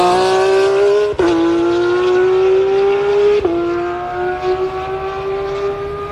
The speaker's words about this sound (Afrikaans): vat my gou op na Leeukop toe, want ek wil net daar gaan luister hoe die karre se radverwisseling, want hulle moet mos nou rad verwissel om te draai en dan gaan hulle af daar van Leeukop af. Luister net gou-gou hierna.